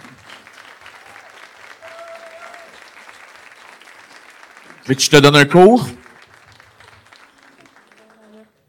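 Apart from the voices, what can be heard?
audience applause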